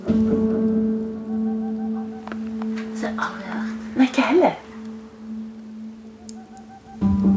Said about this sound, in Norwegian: Akkurat når vi skal til å bryte opp, hører vi en magisk lyd. lyden av ei perleugle som sitter i et tre rett utenfor huset.